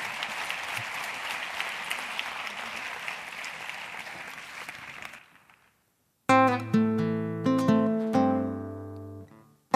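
An audience applauds a singer and her guitar accompanist steadily for about five seconds, a dense even clatter of many hands that fades out. After a brief silence, music with sustained, ringing notes begins.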